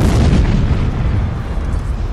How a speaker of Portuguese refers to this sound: De repente, uma grande explosão acontece na cidade.